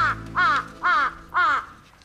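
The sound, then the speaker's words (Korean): A crow caws four times in a steady rhythm, each call loud and harsh, with brief quiet gaps between them and no voices. “저는 다음 날부터 까마귀 우는 소리에 맞춰 용어를 찾아다녔습니다.”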